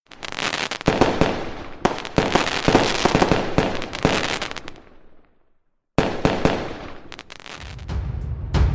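A dense barrage of fireworks explodes in rapid, overlapping bursts, crackling loudly, with a brief silent gap before another volley of sharp pops and booms resumes.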